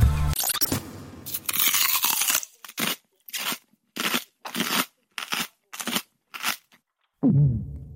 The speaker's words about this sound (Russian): Нет, грыз не я. Это из библиотеки грызли, да, я понимаю, да. Но проглатывали вы, чувствуется, да, глубокий глоток, да.